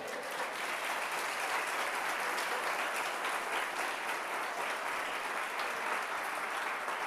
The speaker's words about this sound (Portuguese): Dá um aplauso bem forte para Jesus aí.